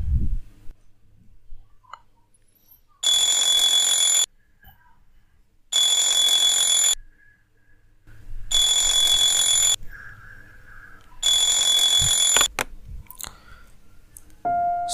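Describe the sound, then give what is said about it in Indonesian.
An alarm clock rings in four loud, evenly spaced bursts, each a shrill, buzzy high-pitched jangle lasting about a second, separated by short silences. “Suara jam alarmku berbunyi, membangunkanku dari tempat tidur.”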